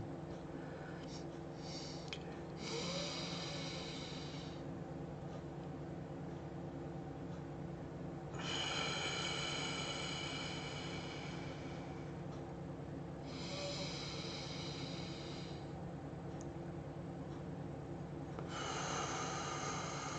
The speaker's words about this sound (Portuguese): Mantenham essa respiração, respirando e absorvendo alegria, irmãos.